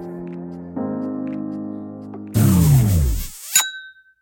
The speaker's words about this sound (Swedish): När jag inte poddar, då är det så här, ingenting på mobilen händer så här lugnt i flera timmar. Men varje gång jag poddar med dig så fucking spamringer min mobil alltså. Det är så störigt.